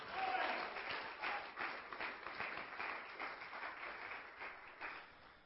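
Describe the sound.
An audience at a church service claps for the Lord for several seconds, a dense, steady patter of many claps at once, with some cheering or voices mixed into the applause.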